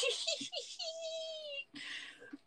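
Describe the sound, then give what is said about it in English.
A baby boy giggles and coos in short bursts, with a long drawn-out squealing vocalization in the middle, fairly loud, with no adult talking. “The noisy ass baby fucking shit. Goddamn. Not noisy. He's vocal.”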